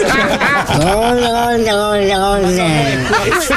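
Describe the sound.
Someone mimics a wildebeest call with a single long, nasal, droning groan that swells and slowly sags over a couple of seconds, loud, framed by brief chuckling sounds.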